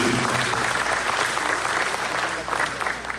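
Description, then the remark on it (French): Sustained audience applause for the former, losing candidates of an election, a dense, steady clapping from a large crowd that holds fairly loud throughout and eases slightly near the end. “Donc je vous prie d'applaudir les anciens candidats, les candidats perdants”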